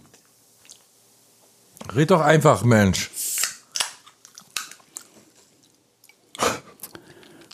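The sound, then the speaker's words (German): Someone speaks briefly, then a string of crisp crunching and rustling sounds follows as a man reaches into his bag of snacks and chews, ending with one louder crunch. “Oh, jetzt geht er wieder an seine Tüte ran, Alter.”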